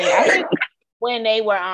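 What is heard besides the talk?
sneeze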